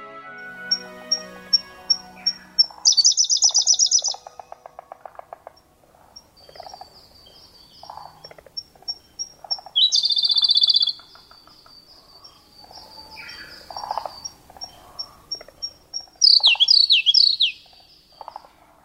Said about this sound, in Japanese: コルリです体長14センチスズメくらいの大きさでオスは頭から背中にかけて暗めの青色名前の通り瑠璃色をしていますさらに胸とお腹は真っ白声のみならず姿も美しい鳥です